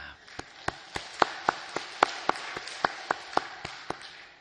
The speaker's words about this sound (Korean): 새 한 주간을 열어주신 우리 하나님께 감사의 박수 올려드리겠습니다.